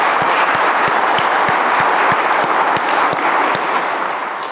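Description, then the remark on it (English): Steady applause from an audience in Salisbury welcoming a new priest to the town, a dense wash of many hands clapping at a loud, even level for several seconds before tapering slightly at the end. “Father was ordained a priest in 2005, if please clap.”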